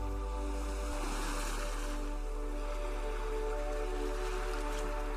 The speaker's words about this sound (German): Beobachte das Meer mit seiner unglaublichen Schönheit. Beobachte die Wellen, den Geruch und das Meeresrauschen.